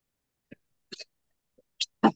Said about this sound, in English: Oh God, I'm just thinking of the cayenne peppers making me cough.